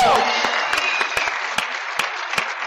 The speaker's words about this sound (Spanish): Un aplauso para ustedes, amigos.